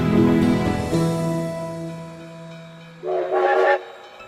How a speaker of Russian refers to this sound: Паровоз из Москвы, свистя и замедляя ход, подходил к станции.